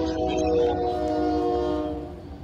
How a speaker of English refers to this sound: the train, dude. I love it.